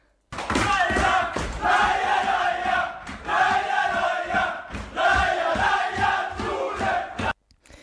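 A loud crowd in Umeå cheers and roars continuously for several seconds, with rhythmic thumps and shouted voices swelling in waves before cutting off abruptly.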